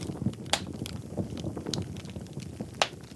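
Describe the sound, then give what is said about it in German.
A hand-made foley imitation of a campfire built from three components, including hard, short, crisp hand claps made without cupping the hands: a steady low rustling bed broken by sharp, bright snaps and pops at irregular intervals, a few louder cracks standing out. No voices. “Und diese drei Komponenten ergeben dann das Lagerfeuer.”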